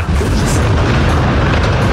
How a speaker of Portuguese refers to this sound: ele estava fazendo uma passagem em frente à Lesc no momento da explosão e a gente consegue ouvir